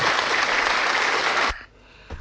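Steady, dense applause from a crowd, bright and loud for about a second and a half, then cutting off abruptly, followed by a brief faint thump near the end.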